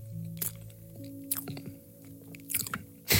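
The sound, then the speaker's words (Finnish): Moist chewing of a cake with something hard in its base, with a few sharp crunchy bites bursting at irregular moments between softer squishy mouth sounds, ending in one louder crunch; no talking. “Oliko siinä jotain kovaa siinä pohjalla?”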